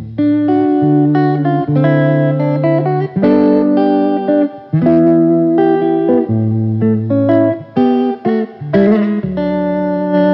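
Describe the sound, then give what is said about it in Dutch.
A cheap Kay electric guitar, the cheapest guitar of the 1960s at about 18 dollars, plays a continuous run of chords and single notes in open D tuning with a slightly distorted, effected tone, sustaining steadily at a fairly loud level with no voices. “die is gemaakt door Kay. Ja. En dat is de goedkoopste gitaar die ze in de 60 jaren hadden”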